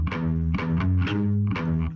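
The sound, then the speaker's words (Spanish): Loud, gritty distorted electric guitar chords chug over a heavy bass line, with repeated strummed attacks roughly every half second and no voices. “Pero yo creo que es la ah. guitarra más bien la que se escucha más distorsionada.”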